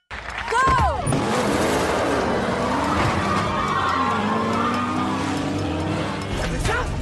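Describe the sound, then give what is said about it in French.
Loud, continuous engine roar of cars racing at about 250 km per hour, with a tire squeal near the start and sustained revving throughout, intense. “C'est un truc de malade, je te parie que c'est que le début. 250 km à l'heure.”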